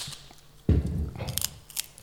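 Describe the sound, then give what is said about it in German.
A sheet of paper is handled: a sudden crisp rustle, then a few scattered crinkles and soft scrapes over about a second, with no voices. “Also Blatt Papier, da hätte ich jetzt gar nicht so dran gedacht, direkt.”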